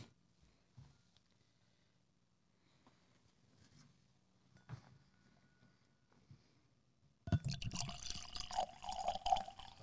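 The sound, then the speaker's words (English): Several seconds of near silence with a few faint clicks, then scotch whisky suddenly splashes and gurgles out of a bottle, a loud, steady pour with a rising liquid tone that runs to the end. “It's coming out of the bottle.”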